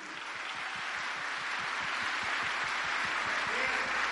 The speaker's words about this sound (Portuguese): Pode aplaudir Jesus, é isso mesmo.